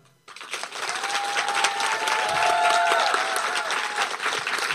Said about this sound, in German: Wir sind hier im Klostergarten und äh, haben einige Gäste mit. Und vielleicht können wir es ja mal probieren, wenn Sie einen großen Applaus geben, sollte das wahrscheinlich dann auch zu hören sein.